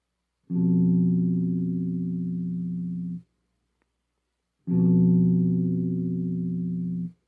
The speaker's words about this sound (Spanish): Este intervalo es muy disonante y crea mucha tensión y pues ahorita lo voy a tocar en mi guitarra para que lo escuchen vamos a poner fa y un si